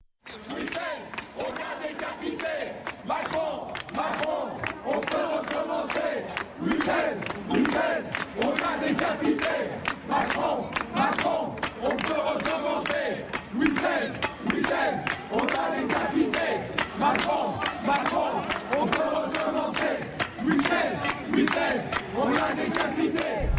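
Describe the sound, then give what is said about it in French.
A large crowd at a protest, including an elected official wearing his sash, chants and shouts together in a dense, continuous roar, voices rising in rhythmic waves with sharp bursts throughout, loud and sustained for the whole stretch. “on le voit en train de, de, chanter”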